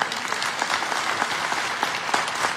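A church audience claps steadily to applaud Jesus during a sermon, many hands overlapping into a dense, even patter of applause at moderate loudness, with no voices standing out.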